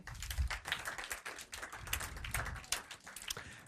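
A round of applause: many hands clapping in a dense, steady patter that carries on throughout, fairly soft, with no voices over it.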